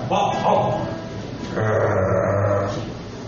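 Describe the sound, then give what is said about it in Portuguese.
A person imitates a dog barking, as if teaching a dog to bark, with two drawn-out, voiced bark sounds, fairly loud, separated by a brief pause. “Mas você imaginou você ensinando o cachorro assim, ó, cachorro, você tem que latir, vai”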